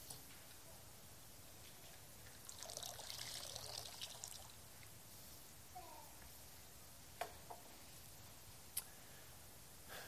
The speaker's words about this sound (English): And so this is, uh, this is historic baptismal water from Artisan Church, which is a, a really neat tradition. And so let me add it now to, to the rest of our water.